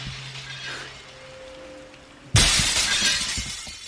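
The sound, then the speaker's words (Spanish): Glass shatters abruptly in one loud crash, followed by a bright scatter of tinkling shards, preceded by a quiet low hum and a faint steady tone. “Todo tensión, el sonido, el cristal y yo en mi casa.”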